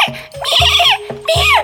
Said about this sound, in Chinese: 砰的一声，录音机莫名其妙的就掉出来了，录音机摔坏了，发出了一声声非常刺耳的咩咩